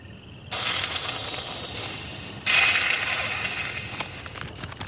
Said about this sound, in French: On dirait qu'elle crache et qu'elle siffle. Nous sommes aux États-Unis, dans une plaine de l'État de Virginie, parsemée de ranchs et de bosquets. Ces cris sont donc certainement les feulements d'un opossum.